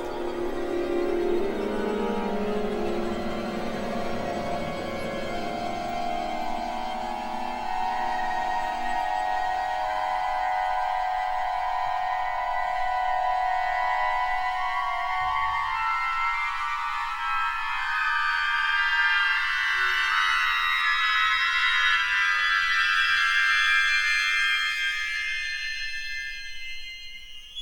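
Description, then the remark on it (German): Dense orchestral tone clusters hold steady and slowly drift upward, a thick, shimmering wall of sustained sound that stays loud throughout, its low register gradually thinning out into a high, glassy haze. “Das ist ein Ausschnitt aus Atmosphäre, dem berühmten Orchesterwerk von Ligeti.”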